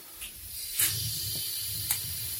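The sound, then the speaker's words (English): A gas paella burner's flame hisses steadily, with a low rumbling roar underneath and a couple of brief louder whooshing puffs; only two of its rings, the inner and the middle one, are lit. No one speaks. “Ist jetzt gleich Stichflamme. Man hört das Gas schon. Fire sound.”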